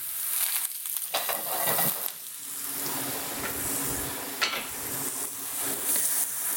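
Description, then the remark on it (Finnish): Slices of a large eggplant fry in a pan, cooked in a couple of batches, with a steady, dense sizzle, punctuated by a few brief scraping or stirring movements. No one speaks. “Täällä on aika iso tämä munakoisa, mikä mulla on tässä näin, niin tämän joutuu paistamaan tälle parissa erässä, että mahtuu nämä kaikki slaisit tänne pannulle.”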